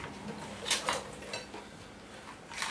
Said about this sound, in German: So, während ich jetzt warte, dass der Kuchen fertig wird, räume ich mal die Spülmaschine aus.